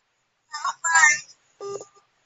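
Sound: telephone dialing tones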